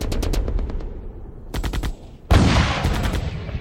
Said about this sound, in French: on entendait les bruits de canon, euh, les tirs. Donc on se disait peut-être qu'un obus pouvait tomber sur la maison.